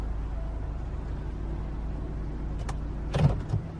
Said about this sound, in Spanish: El taxi se detuvo frente a la puerta principal del hotel, aun cuando en mi plan original de fuga no había previsto ni mucho menos que el regreso fuese por la puerta principal.